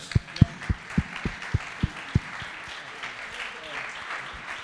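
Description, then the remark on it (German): Brief applause: about eight sharp, evenly spaced claps in quick succession, then they stop, leaving a low, hissy background with no voices. “Also Applaus, ohne Scheiß.”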